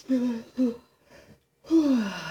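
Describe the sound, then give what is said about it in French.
A person yawns audibly, filling the lungs completely: a few short voiced breaths, a brief pause, then a long, drawn-out yawning exhale with a falling pitch, fairly loud. “Parce que quand on baille, remplir complètement les poumons. On va prendre une grande”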